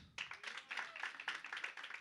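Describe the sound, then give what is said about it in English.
A live show audience breaks into steady applause when the host asks who has never seen the show before, dense overlapping claps with scattered cheers, filling the space after a brief quiet start. “All right, by round of applause, who has never seen this show before? Make some noise.”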